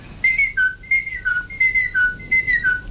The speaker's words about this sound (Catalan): Uh, la mallarenga carbonera eh, és fàcil. Ah fa un cant